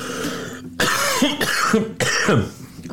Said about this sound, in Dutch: Ja, ik verslik me nu. In de munt, Gaat het, jongen? Ja, nee, ik, ik, ik moest even op adem komen.